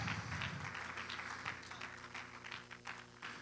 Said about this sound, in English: Can we give the Lord a hand clap and a praise again this morning? Woo, thank you, Jesus.